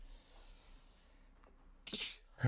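A single sneeze bursts out, a sharp breathy blast with a brief intake before it, followed by a short low rustle; otherwise quiet.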